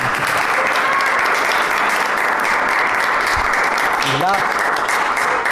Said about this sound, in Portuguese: O primeiro candidato é Jair Bolsonaro. Por favor, aplausos para Jair.